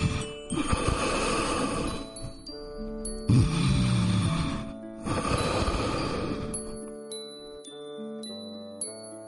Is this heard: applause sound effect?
no